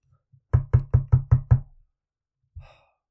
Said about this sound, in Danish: Tænk så. første gang nogensinde, at der er nogen, der banker på, og så har hun ikke engang kræfterne til at åbne porten for dem.